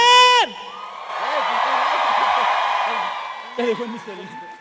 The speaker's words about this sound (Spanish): Oigan, un aplauso para los que hicieron la canción de